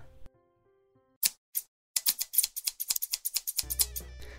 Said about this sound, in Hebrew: רפונזל לקחה זוג מספריים מהמגירה, וגזמה בבת אחת את כל שערה